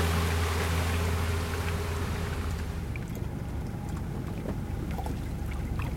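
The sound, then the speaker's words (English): A boat cruises slowly and gently alongside whales, its engine giving a steady low hum with water washing and splashing against the hull, continuous, with no voices. “You have to treat these animals with the greatest respect and just gently cruise alongside them.”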